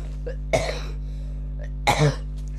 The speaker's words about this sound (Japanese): すいません、なんかちょっと風邪ひいちゃって咳が出るんですけど